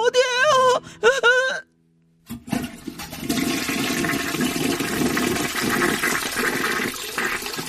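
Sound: toilet flushing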